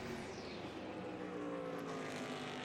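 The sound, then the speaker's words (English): A loud, steady engine roar fills the whole span, with a high-revving whine and a slight pitch sweep as the Acura Team Penske DPi prototype race car passes down the Ulmann back straight during an IMSA session. No voices. “The Acura team Penske DPi going down the Ulmann straight now.”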